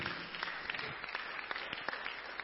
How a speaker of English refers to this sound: Clap your hands for the word of God.